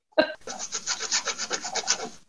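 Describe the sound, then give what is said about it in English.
Cheese being grated: a steady series of about ten rhythmic, raspy scraping strokes, preceded by a brief sharp clatter, with no talking. “Listen to that great grating sound for your AMSR I, whatever that is.”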